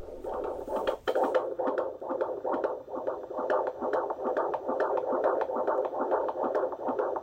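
A baby girl's fetal heartbeat from a doppler monitor, recorded on a mobile phone at a midwife checkup: fast, steady whooshing thumps, about two or three per second, with a soft hiss underneath. No one speaks.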